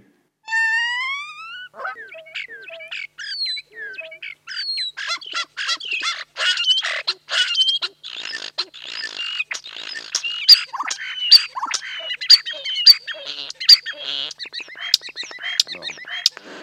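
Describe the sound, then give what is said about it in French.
A European starling sings alone: a dense, varied stream of whistles, rattles, clicks and squeaky chatter that runs on continuously, opening with clear rising whistles. “on part d'un chant des tourneaux sans sonner”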